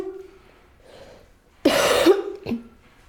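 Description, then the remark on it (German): A person, standing and bent forward on instruction, gives one loud, forceful cough on command lasting about half a second, followed shortly by a brief, softer catch of breath, with quiet before and after. “Nach vorn beugen. Richtig runter mit dem Rücken. Und jetzt husten.”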